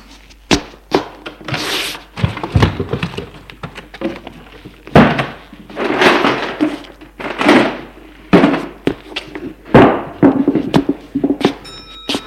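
Cupboard and wardrobe doors in an apartment are opened and shut by a woman searching alone, with repeated wooden thunks, bangs and rustling handling noises spread irregularly throughout, no voices.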